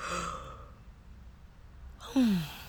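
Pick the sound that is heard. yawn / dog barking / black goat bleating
yawn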